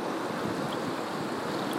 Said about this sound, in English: Hello, dear ones. I wanted to bring to you the sound of a bending river,